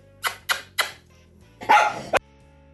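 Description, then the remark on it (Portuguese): A dog barks in a quick run of three sharp yips, then lets out a longer, rougher bark ending in a short snap, with no talking over it. “Até o cachorro participou da Érica.”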